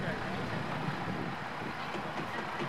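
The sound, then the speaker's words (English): A tractor harvesting peppers in a field, pulling the peppers off the plants, rumbles steadily, its engine drone and mechanical clatter holding an even, continuous loudness throughout, with no pauses or distinct separate events. “You have a, a farmer picking peppers off of this plant, and then the big machines roll in, a tractor, uh, these large machines come through the fields and are pulling the peppers off the plant.”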